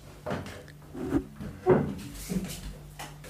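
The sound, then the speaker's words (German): Someone gets up from a chair in a studio as it grows dark, with a few low wooden creaks and soft knocks, fairly quiet, followed by a small click of a light switch as the light is switched on. “Ich versuche mal ohne zu quietschen oh ja, aufzustehen und”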